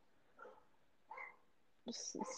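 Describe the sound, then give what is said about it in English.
A dog barks a few times in short separate bursts, the last ones louder and closer together, heard faintly. “Can you hear that? This ad break has been brought to you by Dog.”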